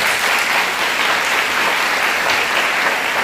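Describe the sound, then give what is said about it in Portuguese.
A church audience applauds the word of Jesus after a Bible reading, a dense wash of many hands clapping steadily at an even, loud level throughout with no individual claps standing out and no voices breaking through. “Aplauda a palavra de Jesus.”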